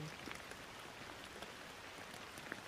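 Steady rainfall hisses evenly across the whole clip, with scattered soft drop impacts pattering. It is continuous and moderately quiet, and no voices are heard.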